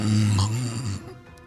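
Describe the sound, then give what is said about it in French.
A single drawn-out, low rumbling snore, made by a voice imitating someone snoring while asleep in a big shell, loud for about a second before it trails off into quiet. “On, on jase au fond de la pièce avec une petite veilleuse, puis toi tu dors puis tu ronfles dans ta grosse carapace.”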